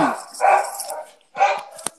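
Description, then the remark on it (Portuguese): A dog named Marley barks twice in close succession, each bark full, with a brief quiet gap between them and a short sharp click at the end. “Um beijo convite, pro Marley, que tá latindo legal.”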